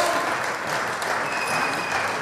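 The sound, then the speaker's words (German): Steady crowd applause at a club members' meeting in Dortmund with the team present, a dense wash of clapping with a few thin whistles cutting through from the audience. “Pfiffe, Applaus.”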